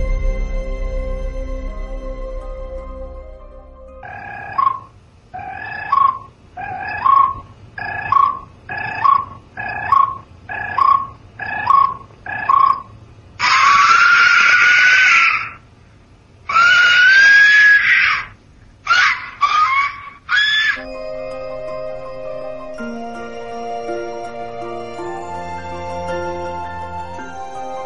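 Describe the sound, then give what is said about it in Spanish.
An Aztec death whistle gives a piercing, scream-like sound in a rapid series of about nine short shrieks, then longer sustained wailing blasts and a few sharp bursts, loud and harsh against a quiet tonal background. “es este el sonido de un silbato que, mm, nunca mejor dicho, pues le han puesto eh, los arqueólogos actuales el silbato de la muerte, porque es que realmente suena como que están matando un bicho.”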